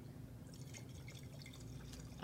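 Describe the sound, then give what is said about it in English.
Wine pours into a glass, a short run of soft trickling and splashing that fills out over a couple of seconds and ends with a brief louder gush. “I will pour, pour you a full oh, pour you. because it is a little tricky to refill.”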